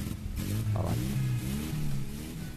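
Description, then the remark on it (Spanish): A car engine cranks and catches, settling into a steady low rumble that carries on throughout, moderately loud with no voices. “¿Arranca o no arranca? A Ahí está.”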